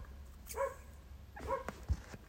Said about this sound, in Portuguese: É possível também ouvirem algumas uh, influências externas de som. Pá, agora está um cão a ladrar.